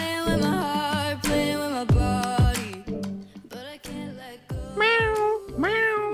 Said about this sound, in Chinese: What？怎么是猫啊？